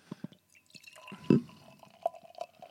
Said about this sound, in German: Und deswegen öffnen wir die, die Flaschen, gießen, gießen ein. er gießt.